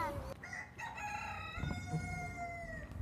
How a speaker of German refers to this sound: Aber wenn das passieren sollte, dann hört man den Hahn pfeifen. Und zwar auch dreimal.